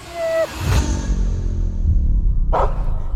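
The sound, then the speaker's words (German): A man in a dog costume imitates a dog, giving two separate barks about two seconds apart, heard over a steady low engine-like rumble. A brief high whistling tone sounds at the very start. “Sie fährt noch mit zu ihm und dann stellt sich raus, der hat gar keinen Hund, sondern einen Mann im Hundekostüm.”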